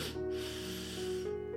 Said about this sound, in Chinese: 小不点闻了闻